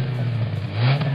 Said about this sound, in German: Ja, der fährt gerade vor mit seinem Bus.